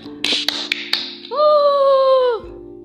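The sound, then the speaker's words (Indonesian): A handful of sharp, crisp hand claps at an uneven pace, followed by a loud sustained tonal whoop-like sound that holds steady and then dips in pitch before stopping. “ayo tepuk tangan dulu tepuk tangan”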